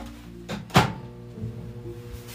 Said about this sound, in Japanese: 冷凍のご飯を使います土鍋で炊いてジプロックのご飯用のやつに入れて冷凍してあったのがあるのでそれをチンしてます